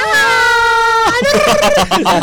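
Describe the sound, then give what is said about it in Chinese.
A person lets out a loud, high-pitched scream imitating the screaming Cowardly Lion from The Wizard of Oz, as shown on the poster, holding one strained note for about a second before it breaks into shorter, rough bursts. “对，就是海报上就是这样在尖叫的那个狮子， 形象非常鲜明的。”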